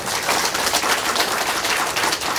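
Sustained applause from an audience for members who joined 伊丝碧媞 three years ago: many hands clapping at once in a dense, crackling wash that stays loud and even for the whole stretch, with no voices.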